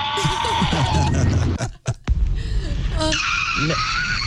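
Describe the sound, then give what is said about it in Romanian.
A child in Romania, sending a message to show how they scream when frightened, screams in fright, a loud, shrill, sustained shriek that breaks off briefly after about a second and a half, then resumes high-pitched and piercing to the end. “am dat liber la țipat, le-am spus copiilor să ne trimită mesaje, să ne arate cum fac ei când țipă, când se sperie.”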